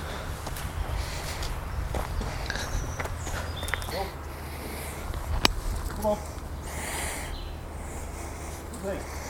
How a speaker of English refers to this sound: Old dried leaves.